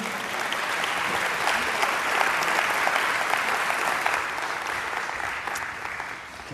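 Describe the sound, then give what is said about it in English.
An audience applauds steadily at a baby dedication as parents, grandparents and elders come forward, a dense wash of many hands clapping at an even, fairly loud level that holds throughout and eases off slightly at the end. “Let's give everybody a round of applause as they're coming.”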